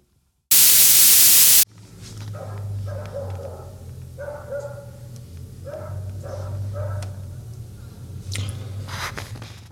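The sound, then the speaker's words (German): A brief blast of loud static gives way to a dog barking in a quick series of about eight barks over a steady low hum. “Gott, ich hasse Hunde.”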